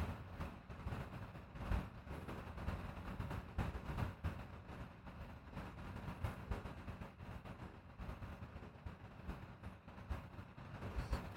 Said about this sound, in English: it's literally like a subwoofer like like wom wom wom wom wom wom like that kind of sound